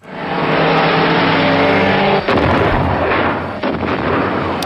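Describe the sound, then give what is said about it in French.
An archive recording of the 1955 Le Mans race crash, the worst accident in motor sport history: a racing car engine roars loudly with rising pitch over heavy, hissy noise, then two sudden violent crashes burst out as a Mercedes takes off beside the grandstands, followed by chaotic rumbling, like an old, rough recording. “Ce que vous venez d'entendre, c'est le pire accident de l'histoire du sport automobile.”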